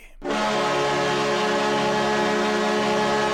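A loud, sustained train horn sound effect, played in honour of football player Jay Ajayi, the 'J-Train'. It blares after a brief moment of quiet, holding a steady chord of several harmonic tones for about three seconds without letting up.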